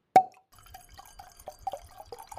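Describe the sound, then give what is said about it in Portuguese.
A single bright clink of glasses in a toast between friends rings out sharply and briefly fades, followed by a run of soft, scattered liquid-like drips and small clicks. “Tintim, amiga. Tintim.”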